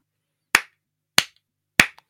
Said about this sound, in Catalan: Mira, t'aplaudeix.